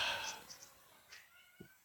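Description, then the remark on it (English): A cat gives a few short, high-pitched meows, fairly loud at the start, then quieter chirps trail off, with a soft low bump near the end. “Jesus Christ, the cats are insane.”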